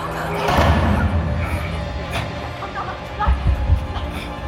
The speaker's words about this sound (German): Die Tür! Sie fällt zu!